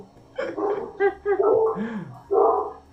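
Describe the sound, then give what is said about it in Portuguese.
A female dog barks in a quick, irregular series of four or five sharp yaps with a brief whine between them, fairly loud, with faint background noise. “minha cachorra aqui disparou, vocês estão ouvindo ela?”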